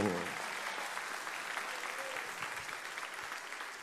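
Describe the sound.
An audience applauds steadily, a dense wash of many hands clapping at once that holds at an even, fairly loud level throughout, with a brief voice at the very start.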